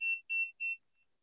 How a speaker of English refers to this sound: So I don't know if it's just my meter might be messed up or something, but it definitely was beeping.